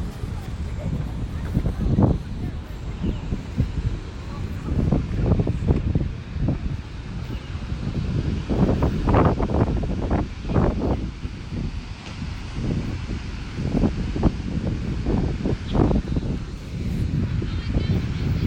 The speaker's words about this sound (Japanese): ちょっと波の音もう少し聞いてよ